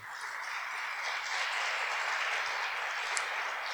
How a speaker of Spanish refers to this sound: Es un buen momento para aplaudir al Señor.